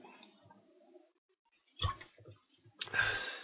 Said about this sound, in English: So take a sip of water real quick.